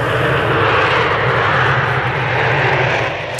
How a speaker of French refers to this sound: cet avion qui s'arrache du tarmac, vous avez peut-être reconnu le décollage d'un supersonique, le Concorde 76, ah un fleuron de l'industrie euh, française qui prend son envol.